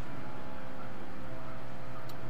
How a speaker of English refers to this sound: As we enjoy the dulcet tones of what sounds like a buzz saw.